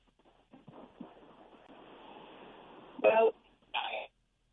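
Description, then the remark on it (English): A mobile phone call breaking up: muffled, garbled voice fragments over a thin, hissy line, then two loud crackling digital bursts before the connection drops into silence. “looks like you went off on me there”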